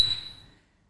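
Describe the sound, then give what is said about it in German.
A single bright clink of glasses touching in a toast at the Christiansens bar on Pinnersberg, a sharp high ring that fades away within about half a second, with no talking over it. “Und erstmal zum Wohl. Zum Wohl.”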